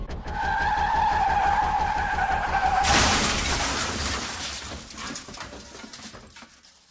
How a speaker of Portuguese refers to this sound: Então, com uma respiração profunda, eu bato o pé no freio.